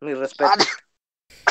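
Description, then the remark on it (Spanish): A person speaks briefly, then after a short silence a single sharp sneeze bursts out near the end. “Ah, ¡Salud! salud.”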